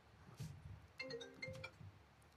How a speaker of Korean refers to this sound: 이게 핸드폰이 저기랑 연결돼 있어서 떼떼떼 왔어요. 죄송합니다. 네. 핸드폰은 매너 모드였는데 저기는 매너 모드가 아니라.